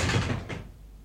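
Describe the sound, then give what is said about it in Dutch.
A cupboard door is yanked open with a quick, scraping rush and a second short knock, then the sound dies away into quiet. Fairly loud, with no voices. “Ik haalde diep adem, rukte de deur open.”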